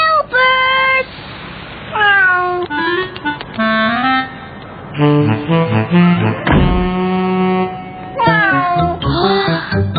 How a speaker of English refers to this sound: but it wasn't Gilbert. It was Sarah's cat, Ollie. Ollie, that's Gilbert's food the second time you've done that this week.